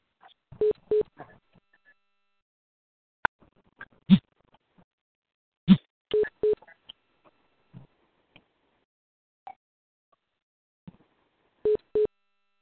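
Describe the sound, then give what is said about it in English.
A phone beeps in short pairs of tones during an online meeting, repeating at intervals, interspersed with faint clicks and taps; no one speaks. “Somebody's phone is beeping.”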